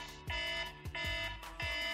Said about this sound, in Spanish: ahí está la bocina esta que es insoportable, pero bueno, es la que nos ayuda.